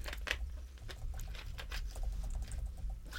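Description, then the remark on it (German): Rapid, irregular clicks of someone typing on a computer keyboard, fairly quiet, over a steady low hum with no voices. “ich hack wieder ein bisschen auf meiner Tastatur rum.”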